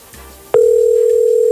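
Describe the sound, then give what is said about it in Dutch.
A phone line's ringing tone, heard while calling someone back, cuts in abruptly after a brief quiet lead-in, then holds as one loud, steady electronic beep to the end. No one speaks. “Gaat die nou wel opnemen? Of bel ik nou heel iemand anders terug?”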